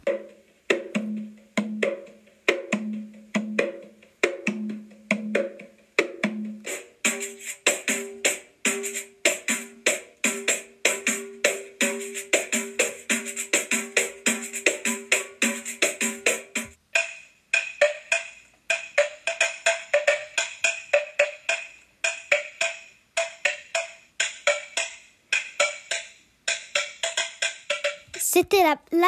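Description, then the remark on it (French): Capoeira instruments play in turn: the twanging, rhythmic berimbau, then the jingling pandeiro joining in, then the clanking bell tones of the agogô in a steady beat. No one speaks. “le pendir et la gagou”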